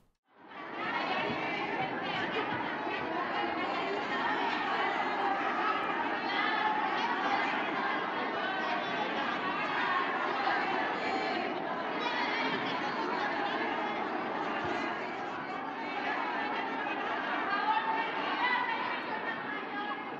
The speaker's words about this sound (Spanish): Y parecía que era el día del presidente. ¿Sí? Lo fueron a felicitar y, coreaban que es un honor. Mira, mira.